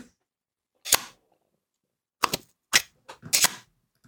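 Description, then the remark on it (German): A magnetic polarizing filter snaps onto a camera lens ring in a handful of sharp clicks. The snaps come irregularly with quiet gaps between them, and no one speaks. “Und wenn man das gemacht hat, dann nimmt man zum Beispiel so einen Polfilter, wie ich ihn gerade in die Kamera halte, und hält ihn einfach nur über den Ring, lässt los und dann sitzt er fest.”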